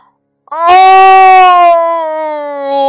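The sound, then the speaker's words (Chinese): A voice imitates the angry roar of the story character Jimmy, who opens his mouth wide at an eagle chasing an old marmot: one long, loud, drawn-out vocal cry held for over two seconds, its pitch steady then sagging slightly, with no other sound around it. “吉米冲到老鹰面前，张开大嘴，怒吼了一声”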